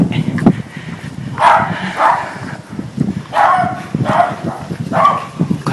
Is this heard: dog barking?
yes